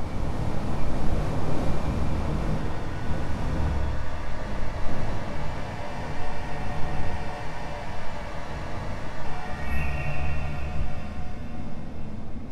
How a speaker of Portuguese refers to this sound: vamos voltar pro clima de terror. Teteus, tempestade e música de